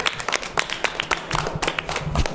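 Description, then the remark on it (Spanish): A short burst of applause from a small group, with quick overlapping claps forming a steady, moderately loud patter. “Pues les invito a darse un aplauso.”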